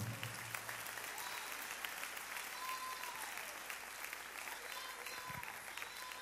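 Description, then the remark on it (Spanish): An audience applauds the Lord steadily for about six seconds, many hands clapping in a dense, even wash, with scattered voices and a few brief vocal calls rising faintly through the clapping. “Le damos un fuerte aplauso al Señor por ello.”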